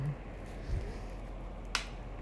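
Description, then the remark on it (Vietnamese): A single sharp click of a light switch being flipped off, brief, against a low, steady room hum with no one talking. “Đây là tiếng tắt điện của mình”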